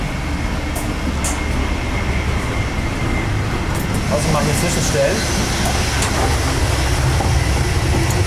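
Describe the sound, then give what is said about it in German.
Loud, steady rumble of a moving train with InterRegio carriages, heard from the gangway between carriages, with deep low-end roar, rattling and occasional clanks, while a man speaks briefly over the noise. “Finde ich immer sehr interessant, lautes zwischen den Türen, zwischen den Wagen.”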